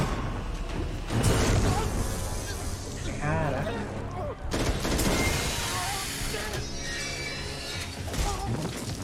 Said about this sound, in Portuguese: Ali meio que na visão dele, né? muita fumaça, muito tiro.